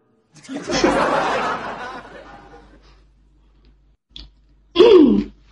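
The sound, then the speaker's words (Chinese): A harsh, raspy coughing fit: one long loud burst that trails off, then after a pause a short cough and a final loud, voiced hack. No speech. “哎呀，这咳嗽的逼声，我还真把你认出来了。”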